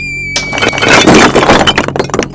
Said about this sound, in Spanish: y los ladrillos a su espalda cayeron.